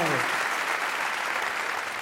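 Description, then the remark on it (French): Dense, continuous applause from an audience, a steady wash of many hands clapping at a fairly loud, even level for about two seconds with no voices standing out. “Si tu veux applaudir ça, ne, ne le fais pas comme ça.”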